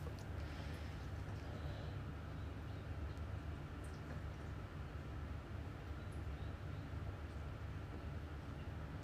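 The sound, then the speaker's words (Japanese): Rice cooking in a clay pot (donabe) bubbles with a steady, low simmering rumble, constant, with only a few faint ticks from the lid now and then as the bubbles push it up slightly. No one speaks. “ご飯がね土鍋の蓋をあぶくでブクブクちょっと押し上げたりしてるのそんな音を聞きながら”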